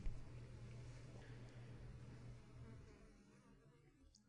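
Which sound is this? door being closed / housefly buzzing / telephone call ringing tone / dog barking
housefly buzzing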